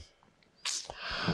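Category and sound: human body sound, sneeze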